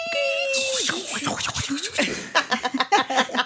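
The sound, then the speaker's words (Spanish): A voice imitates a dial-up modem connecting to the internet over a telephone line: a steady whistled tone, then a burst of hissing static and a run of quick, choppy electronic-sounding squawks, fairly loud. “te conectabas a internet y te tenías que esperar en la madrugada a que no hubiera gente conectada por teléfono.”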